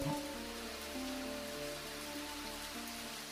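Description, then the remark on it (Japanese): Steady rain falls at night with a dense, even hiss throughout, while low sustained musical tones hum quietly underneath. No one speaks. “うさぎ一羽の獲物も取れないうちに辺りは夜の帳に包まれおまけに雨まで降り始め”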